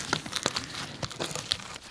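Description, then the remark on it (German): Latex rubber being loosened at the edge and peeled off a plaster mold to reveal a foam cast: a run of sticky, crackling rips and small pops in irregular bursts, with no voices. “Dann lösen wir am Rand die Gummimilch.”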